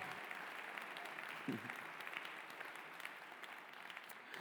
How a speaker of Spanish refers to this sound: Un aplauso a Jesús.